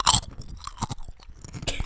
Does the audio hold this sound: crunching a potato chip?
yes